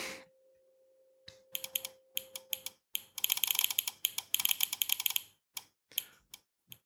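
Rapid mechanical clicking of an IoT switch toggling on and off faster than a person could, clustered in fast irregular bursts that grow dense in the middle, with a faint steady hum at the start. No one speaks.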